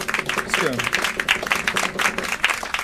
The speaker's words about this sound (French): vous avez pu applaudir